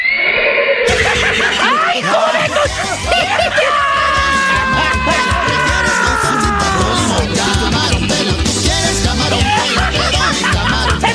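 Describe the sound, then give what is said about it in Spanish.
A loud mare's whinny rises and then trails downward in a long, shaky neigh, set against a dense, noisy background with other voices and commotion. “Que hoy no te viniste en el caballo de siempre vienes montando la yegua, menso.”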